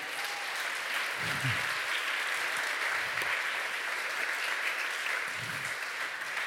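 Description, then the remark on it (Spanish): An audience applauds loudly for the Lord, a dense, steady wash of clapping that fills the whole clip, with a few low murmuring voices rising briefly beneath it. “Lo que Dios dice se cumple y si lo cree, denle un fuerte, pero bien fuerte aplauso al Señor.”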